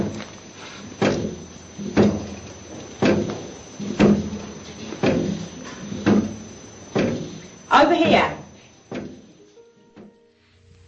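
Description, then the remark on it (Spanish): A table bounces and knocks against the floor as if walking, in a steady series of about nine heavy, hollow thuds, roughly one per second, while a voice speaks briefly over them. “Bueno, eso que escuchaban, esos golpecitos, eh, era la mesa.”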